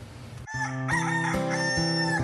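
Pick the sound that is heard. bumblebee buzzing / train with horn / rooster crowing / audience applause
rooster crowing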